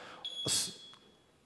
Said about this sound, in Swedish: Yes Lord, I heard that beep.